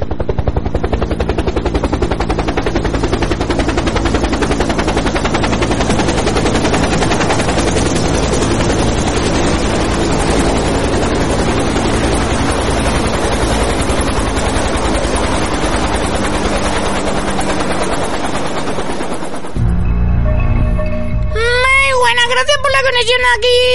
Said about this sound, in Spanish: mira, está, bajando, está bajando con el helicóptero.